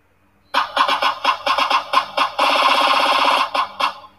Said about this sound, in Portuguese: Ô, oh, entrou um, um pássaro aqui em casa, velho, só que eu não sei como que eu tiro ele aqui. Um pássaro bem diferente, eu nunca vi esse bicho.